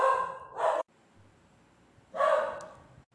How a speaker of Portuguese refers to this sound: Eu peço desculpa, eu estou gravando aqui na minha casa e os meus cachorros latem. Não tem como eu é, impedir que sons aconteçam, ok?